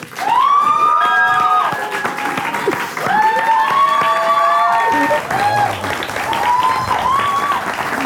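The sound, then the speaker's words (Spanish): An audience applauds loudly and steadily to welcome comedian Lalo España as a guest, with dense clapping throughout and whoops and cheers rising over it in bursts. “Un fuerte aplauso para Lalo España.”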